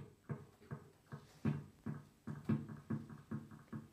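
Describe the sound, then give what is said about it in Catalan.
An electric guitar plays through an analog delay pedal, its warm, midrange-heavy notes plucked in a steady rhythm, each one trailed by softer, darker echoes, loud with no voices. “Veieu que ja té un so molt més mitjós, més antic.”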